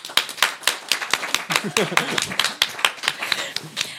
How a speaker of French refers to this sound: On peut les applaudir.